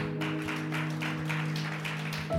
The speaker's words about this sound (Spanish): ¿Estamos listos? Denle un aplauso a Dios.